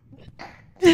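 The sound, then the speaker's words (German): A single sharp sneeze bursts out loudly right at the end, preceded by a brief quiet intake of breath and faint voice-like murmuring. “Gesundheit.”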